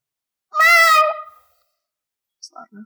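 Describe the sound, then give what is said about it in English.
A person lets out one loud, drawn-out meow, a voice imitating a cat, fading off after about a second, followed by a few faint, brief sounds. “Meow. That's not loud enough.”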